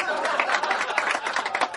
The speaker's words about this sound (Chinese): 大嘴巴王鹏上台鞠躬，掌声欢迎。